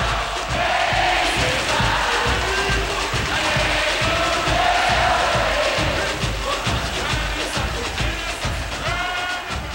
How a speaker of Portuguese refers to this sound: Eu acho que é o coração do Brasil que está explodindo nesse momento. Eu acho que o Brasil inteiro está cantando esse samba. Tenho certeza disso.